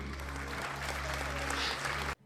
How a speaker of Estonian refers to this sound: ja pärast hiljem plaksud, plaksud endale ja ma palun aplausi kõigilt